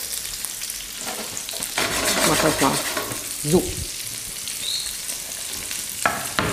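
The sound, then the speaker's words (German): Chorizo sizzles steadily in a pan, fried for about four minutes in all with sage added after two minutes, a continuous crackling hiss with a few louder clatters of stirring, while a couple of people exchange brief words over it. “Wie lange brätst du denn das jetzt an?”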